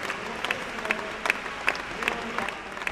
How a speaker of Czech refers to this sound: Jen dvěma lidem ale diváci tleskali ve stoje. Výtvarníkovi Eduardu Ovčáčkovi a hudebníkovi Milanu Báchorkovi.